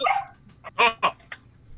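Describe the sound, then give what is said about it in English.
A dog barks a few sharp times in quick succession, moderately loud, with a brief softer yip trailing after and no talking over it. “So does the dog, apparently.”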